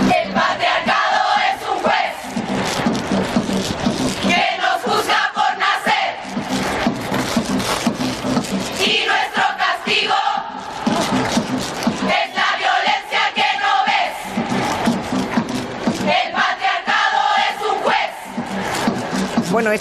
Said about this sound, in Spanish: canción se ha convertido en todo un símbolo. Em, esta es una versión cantada en las calles y hay alguna a la que ya habían puesto incluso algún tipo de música de fondo.